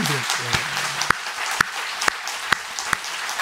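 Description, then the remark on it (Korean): An audience applauds in a dense, steady wash of clapping, with sharper claps ringing out on a regular beat about twice a second. A faint voice is heard briefly at the start. “박수 한번 어디 갔어요?”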